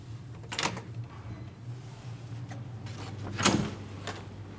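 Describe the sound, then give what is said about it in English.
A door is unlocked and opened from the outside: a sharp latch click, a quiet pause, then a louder clunk as it swings, all over a steady low background hum with no talking. “So, all I wanted to do today was just those simple things I wasn't allowed to last year, like opening my own door from the outside”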